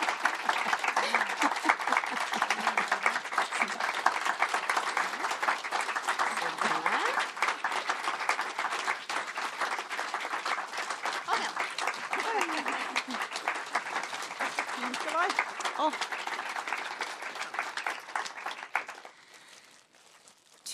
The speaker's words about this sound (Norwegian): Og nå kan dere klappe.